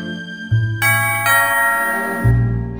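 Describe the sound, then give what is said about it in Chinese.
An electric doorbell at a house's main door, pressed by Victor, rings, sounding a series of bright chime tones that strike in turn and overlap as each one rings out. There is no talking. “维克多按了大门的电铃，却没有人来应门。”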